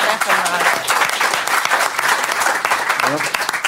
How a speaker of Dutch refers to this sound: Nou, applaus.